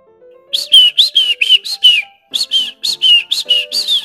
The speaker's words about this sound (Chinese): 这时候，他听到了，哎，小鸟在美丽的夜空下歌唱。